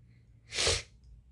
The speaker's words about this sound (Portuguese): desculpa eu estar fungando muito aqui. Eu, eu, eu, eu sei lá, eu não sei o que tá acontecendo. Acho que eu tô choroso. Ah, tem muito catarro. Muito catarro.